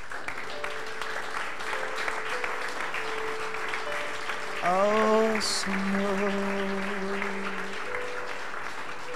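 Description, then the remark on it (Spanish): A crowd applauds Jesus steadily throughout, a dense wash of clapping, with voices calling out and a rising vocal exclamation partway through. “Yo que usted le aplaudiría a Jesús.”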